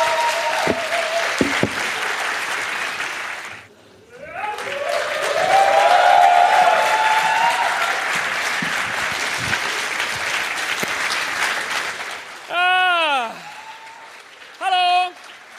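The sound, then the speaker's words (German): A large audience at a live stage show claps loudly and steadily for about fifteen seconds as a short break begins, pausing briefly near the start, with voices in the crowd and a few sharp whistles or cheers toward the end. “Applaus”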